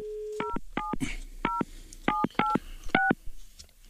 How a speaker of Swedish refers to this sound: Okej, vi provar den. Då tar vi här. Ska vi se. Då ringer vi till honom.